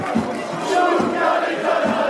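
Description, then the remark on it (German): A large crowd of football fans sings a loud stadium chant together, a dense wall of voices with a steady pulsing beat, like rhythmic clapping or stomping, underneath. “Kanntest du diesen Schlachtgesang schon.”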